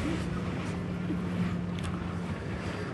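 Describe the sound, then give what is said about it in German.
Pond water laps and washes steadily against a boathouse, a continuous rushing sound with a faint low hum underneath and no distinct pauses; sailboats are on the water and the Karawanken mountains are in view. “Hörst dem Wasserrauschen zu, wenn es ans Bootshaus schlägt”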